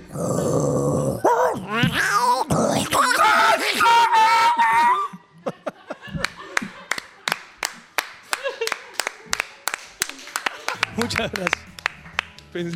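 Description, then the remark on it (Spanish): A voice imitates a snarling, yowling dog-and-cat fight for about five seconds, all growls and wails, followed by a long run of quick, sharp claps or slaps. “Pelea entre perro y gato.”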